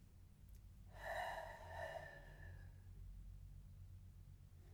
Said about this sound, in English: So let's take one to two minutes together and practice this breathing. And don't forget the whishing noise.